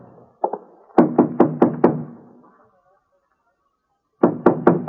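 Firm knocking on a carved mahogany front door, loud: a couple of light taps, then five evenly spaced raps, a quiet pause, and another quick series of knocks.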